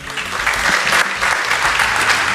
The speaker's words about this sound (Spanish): ya la aplauden antes de que hable, por si acaso no está en condiciones de hablar. No se quede sin aplauso, esto es importante.